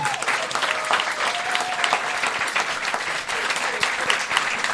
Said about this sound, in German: Übrigens würde ich an diese, ich würde an dieser Stelle gerne mal dafür bitten, einen, einen großen Applaus oh.